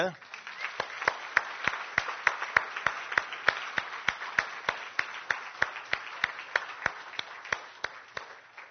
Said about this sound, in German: Und ich denke, dass wir die mal hier in den Saal hineinholen, in dem Sinne, dass wir ihnen mal einen kräftigen Applaus geben.